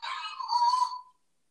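A dog lets out a single drawn-out bark, almost a yelp, lasting about a second at moderate loudness, with no voices or other sounds around it.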